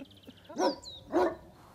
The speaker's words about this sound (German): Ja, das ist mein Hund.